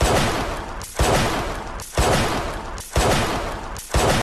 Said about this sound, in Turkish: İstanbul Sarıyer Reşit Paşa Mahallesi'nde 25 Mart 2016 akşamı silah sesleri duyuldu.